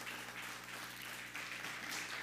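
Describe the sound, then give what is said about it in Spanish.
Steady applause from an audience, a dense, continuous patter of many hands clapping at an even level for the whole stretch, with no voices. “Te aplauso una vez más a todas las naciones.”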